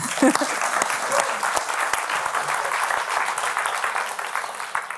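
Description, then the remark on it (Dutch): Steady applause from an audience fills the whole stretch, dense overlapping claps at a consistent level, with a brief voice near the start. “Mag ik een warm applaus voor Dien Bowen voor, met een stuk dat geen titel draagt.”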